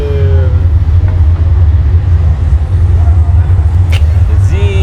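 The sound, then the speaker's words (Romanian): A tram rumbles past, a loud steady low roar with thin metallic wheel squeals rising and fading over it and a brief clattering burst near the end. “bă, zic, e da, tramvai.”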